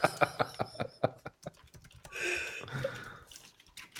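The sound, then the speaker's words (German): Quick, crisp clicks of typing on a computer keyboard, irregular, with short bursts and pauses and a brief rustly stretch in the middle; no one speaks. “Ja, weil du so lange nachdenken musst beim Tippen.”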